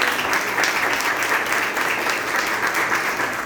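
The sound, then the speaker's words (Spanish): An audience at an event in Colombia applauds steadily for a special invited guest, a doctor, a dense wash of many hands clapping at a fairly loud, even level throughout, with no voices standing out. “Quiero que por favor le regalen un aplauso muy especial a ella.”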